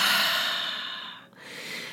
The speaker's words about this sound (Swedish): Så när du hittat din sköna position, bara sitta ner, andas kanske in genom näsan, fylla upp magen med luft. Andas ut genom munnen.